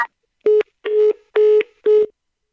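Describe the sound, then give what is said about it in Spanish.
A phone call with a co-host reporting on the 65th Grammy Awards drops: four steady, mid-pitched electronic beeps in an even rhythm, each sounding briefly with short gaps between, fairly loud and alone with no talking. “Se cayó la comunicación ahí con mi compañera”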